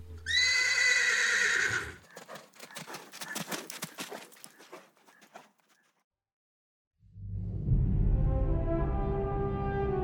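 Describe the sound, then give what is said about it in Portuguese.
A horse named Silver whinnies loudly and shrilly, then a rapid run of hooves clip-clops away and fades out. After a brief silence, a sustained, rich tonal sound rises. “É lógico que o meu cavalo se chama Silver.”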